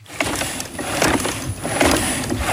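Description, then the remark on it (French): Motors of a self-balancing robotic exoskeleton, designed by a French company and used at HUG for patients after a stroke, whir and buzz in steady mechanical bursts, pulsing roughly every half second in step with a 50-year-old stroke patient walking, with a constant high whine behind them and no voices. “Au bruit et à la vue, on a l'impression que c'est Robocop qui se dirige vers nous,”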